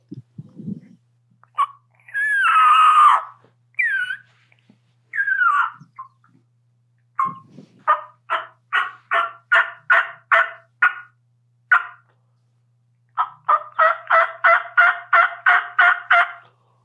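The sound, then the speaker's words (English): Turkey yelps on a game call, clear: a few drawn-out opening notes, then a steady run of about ten evenly spaced yelps, a short pause, and a quicker series of about ten more. “And, and the main thing about yelping too, when I I try to explain to people, is have a beginning and an end.”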